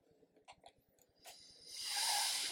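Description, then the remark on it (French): A few soft clicks and taps, then an airy breath drawn in steadily for about a second, swelling into a loud hissing inhale that keeps going to the end, as a man takes a long breath while a cat tries to catch threads hanging from his sweatshirt. “Il prend une longue inspiration pendant qu'un chat essaie d'attraper les, fils qui pendent de son sweat et qui de le démonter actuellement.”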